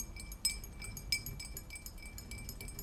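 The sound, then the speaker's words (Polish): Coins clink together as exact change is counted out, two bright metallic chinks standing out among softer jingling over a low, steady background rumble. “E, e, mam odliczone pieniądze.”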